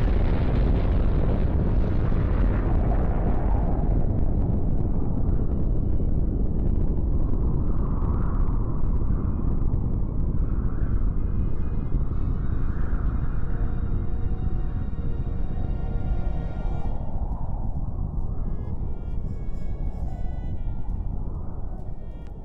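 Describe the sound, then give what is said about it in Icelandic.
A deep, roaring rumble from a massive atomic bomb test explosion rolls on continuously, loud and heavy in the low end, churning for over twenty seconds and easing only slightly toward the end. “Það þurfti aðtuga hvort að sprengjan virkaði.”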